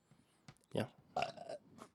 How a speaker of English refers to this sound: Wow, sorry, that was a gross burp. It was a gross burp.